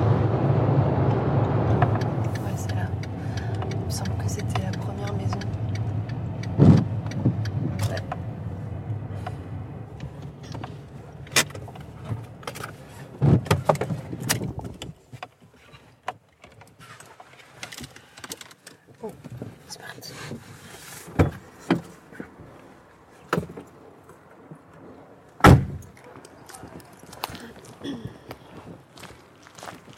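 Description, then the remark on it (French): A car engine rumbles steadily as the car is parked, then cuts out; afterward come scattered clunks, clicks and thumps of car doors and windows, with a few sharp knocks and possible footsteps. “dans la voiture là, non Non, oh, non, vous inquiétez pas, on s'est garé.”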